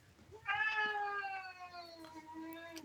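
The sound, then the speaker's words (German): A pet cat lets out a long, loud, drawn-out meow, holding a steady wailing tone for over two seconds before trailing off. No one speaks. “Also an alle, die jetzt meine Katze schreien hören, ihr geht es gut.”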